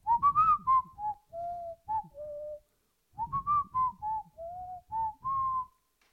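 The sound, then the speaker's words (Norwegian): Someone whistles a character's simple theme melody, a short phrase of distinct notes that pauses briefly and then repeats almost identically. The whistling is clear and steady, with no talking. “Jeg må få lov å plystre den melodien.”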